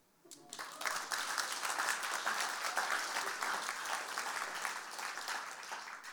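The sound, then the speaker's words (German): A crowd bursts into sustained applause for 365,000 francs donated toward the ICF building, a dense, steady wash of many hands clapping that rises quickly after a brief quiet start and holds for several seconds. “Jetzt hast du klatschen.”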